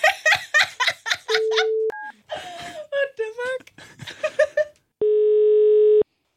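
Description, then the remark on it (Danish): Steady electronic telephone ringing tones of an outgoing call to a mother who is to pretend to be Helle Thorning, two loud, clear beeps a few seconds apart, with a brief higher blip and chattering voices between them. “Vil du ikke lige øh, sige hej, hvis vi ringer op til hende?”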